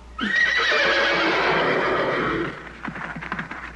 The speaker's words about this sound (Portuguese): Mas o que é com esses cavalos?